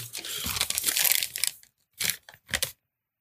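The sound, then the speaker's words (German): A paper receipt crinkles and rustles in a dense, crackling burst for about a second and a half, then two shorter crumpling bursts follow after a brief pause. “Warte, ich habe den Kassenzettel.”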